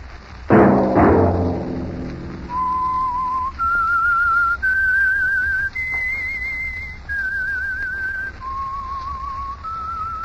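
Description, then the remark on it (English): A clear whistled melody, the signature theme of the Signal Oil radio program The Whistler, of sustained notes stepping up and down in pitch, following a short burst of low instrumental sound at the start, heard alone without any talking. “whistle be your signal for the Signal Oil program, The Whistler, each Monday at 8.”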